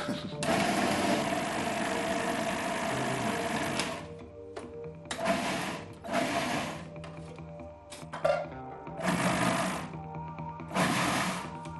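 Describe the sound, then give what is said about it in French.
A robot mixer food processor whirs loudly as it blends oranges cut into quarters, placed in by a gloved worker: one long continuous run of the motor, then several short pulsed bursts with brief pauses between them. “Les, oranges coupées en, quartier que vous êtes en train de placer dans un mixeur robot, robot mixeur.”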